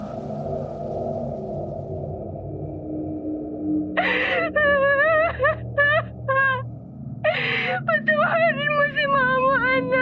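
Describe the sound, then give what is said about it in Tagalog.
An eerie wailing cry, heard inside a dark house during rain and thunder, rises over a low, steady drone: loud, wavering high-pitched wails come in two bursts, each opening with a harsh breathy onset before quivering and trailing off. “Narinig ko na ang isang nakakikilabot na iyak.”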